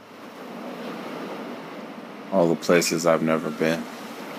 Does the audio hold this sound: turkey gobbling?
no